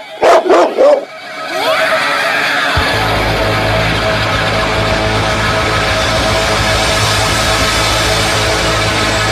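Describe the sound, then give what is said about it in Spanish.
A dog barks three quick, loud times right at the start, then a steady rumbling, noisy background takes over for the rest, with no further barking. “¿No, perro?”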